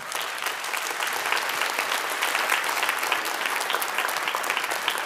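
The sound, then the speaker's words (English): Steady applause from a church audience: many hands clapping in a dense, continuous wash that holds an even loudness for the whole stretch, with no voices standing out. “If you agree with that statement, would you please applaud right now?”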